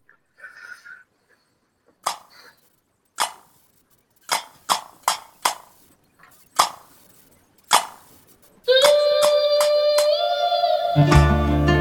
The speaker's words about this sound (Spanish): vamos a escuchar la canción … de …